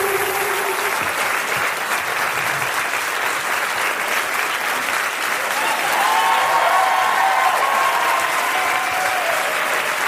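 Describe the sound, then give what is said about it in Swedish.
A crowd claps steadily and loudly for about ten seconds, a dense, even wash of applause that swells slightly toward the end, with a few faint whistles or cheers mixed in. “En stor applåd för Lilla Drevet!”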